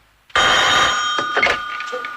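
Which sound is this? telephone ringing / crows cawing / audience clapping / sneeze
telephone ringing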